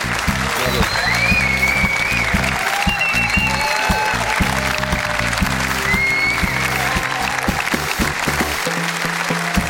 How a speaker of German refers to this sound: Großer Applaus für unsere Runde.